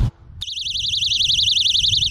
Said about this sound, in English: But since all the sightings recently, I've started carrying a personal alarm with me.